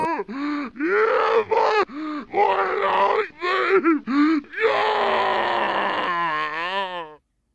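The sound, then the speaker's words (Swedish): A video game zombie, from the game with hero Gordon Freeman, set on fire and burning, groans and grunts in a series of short, rough bursts, then lets out a long, loud, strained scream that wavers and fades near the end. “Och eh, man kan ju tända eld på de här så att de börjar brinna och, så här, och skrika så här.”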